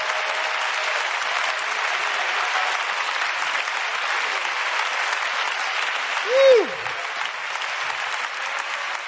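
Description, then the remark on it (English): An audience claps hands in praise to the Lord steadily for about nine seconds, a dense, even wash of applause at constant loudness, with one brief high tone that slides sharply downward near the end. “Come on, let's clap our hands and give praise to the Lord.”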